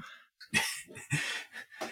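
A pet dog barks three times in quick succession at home, each bark a sharp, fairly loud burst with short pauses between, and no one talking.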